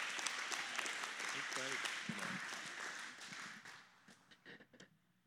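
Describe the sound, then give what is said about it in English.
An audience applauds to welcome a guest speaker, a dense wash of many hands clapping at once that stays steady for a few seconds, then thins out into scattered, separate claps as it fades. “Y'all give him a, a clap.”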